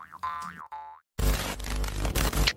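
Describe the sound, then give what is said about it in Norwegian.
A jaw harp twangs twice with a wobbling, boingy resonance, then a loud, dense burst of busy noise abruptly takes over and fills the rest. “må da gå an å bruke munnharp i stedet.”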